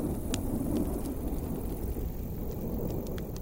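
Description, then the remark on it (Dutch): A deep, steady rumble of thunder rolls on beneath the hiss of falling rain, with scattered sharp drips and crackles popping out above it, from a storm approaching in the sky overhead. The sound fills the whole stretch. “terwijl hij naast een warm vuur zat, terwijl er boven aan de hemel een storm zat aan te komen.”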